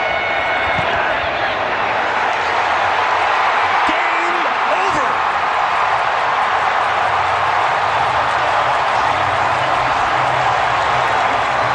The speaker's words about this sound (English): You hear the crowd celebrating as the Chiefs come away with the 26 23 win. Harrison Butker, the hero.